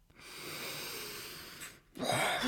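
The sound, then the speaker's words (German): A voice imitates a troll panting heavily after overeating: one long, rasping, wheezy exhale lasting over a second, a short pause, then another strained, noisy breath. Fairly loud, with no other sounds. “Nach einiger Zeit gab der Troll einen lauten Rülpser von sich, legte seinen Löffel zur Seite und meinte schwer schnaufend”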